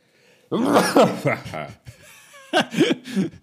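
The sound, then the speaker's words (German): A deliberately entertaining, exaggerated, theatrical sneeze: loud voiced, pitched bursts building up over about a second, then a pause and another short round of voiced, laugh-like bursts. “ich habe auch versucht, möglichst unterhaltsam zu niesen, weil wir sind ja hier in einem Podcast.”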